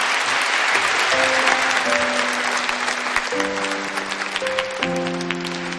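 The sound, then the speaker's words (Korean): An audience claps steadily for several seconds, a dense, continuous patter of hands, while a few sustained musical tones hum underneath and shift upward partway through. “여러분 박수 부탁드리겠습니다.”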